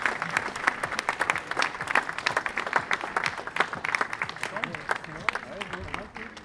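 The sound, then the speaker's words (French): An audience bursts into sustained applause for a birthday, a dense, steady patter of many hands clapping for several seconds before easing off at the end, with a few voices faintly mixed in underneath. “Euh, paraît-il que c'est c'est ton anniversaire aujourd'hui, donc on te souhaite un très bel anniversaire et on peut applaudir.”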